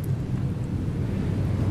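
A dull, continuous low rumble with a wash of watery noise, steady and enveloping like a seabed ambience, with no voices, in a museum exhibit in Torsminde.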